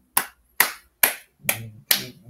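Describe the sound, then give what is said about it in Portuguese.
Five sharp hand claps for Latifi in a steady, slightly slow rhythm, each with a crisp snap and short decay, with a faint low murmur under the last two. “E o Latifi, palmas”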